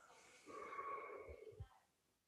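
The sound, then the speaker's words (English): A single slow, airy exhale lasting about a second during a guided breathing meditation, fairly quiet, with a faint whistling edge and a couple of soft low thumps near the end, then quiet. “Breathing out,”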